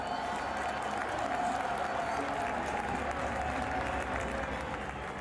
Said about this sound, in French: On est sur ce superbe vélodrome. C'est très particulier, c'est la seule grande course cycliste qui se termine sur un vélodrome. Euh, lorsque les coureurs rentrent ici, ils sont acclamés par la foule, on a l'impression qu'on arrive dans une arène.